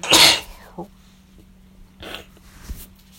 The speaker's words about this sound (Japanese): くしゃみしそう。